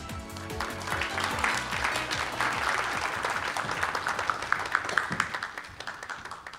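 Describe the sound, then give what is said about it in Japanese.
An audience breaks into sustained applause to welcome the president of Riso Kyoiku (stock code 4714, listed on the Tokyo Stock Exchange First Section) at a company presentation. It is a dense wash of many hands clapping at a steady level for several seconds, with a few louder individual claps standing out near the end as it begins to taper. “それではご紹介いたしましょう証券コード4714東証一部上場理想教育代表取締役社長天坊正彦さんですどうぞ盛大な拍手でお迎えください”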